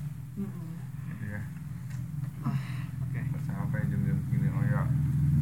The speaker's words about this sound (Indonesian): ada suara motor lewat